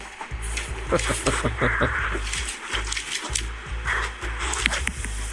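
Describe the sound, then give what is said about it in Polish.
A beagle vocalizes in a rapid series of short, whiny yelps and moans that step up and down in pitch, fairly loud and nearly continuous over a hiss of background noise. “Możemy na przykład sprawdzić dyszy beagle.”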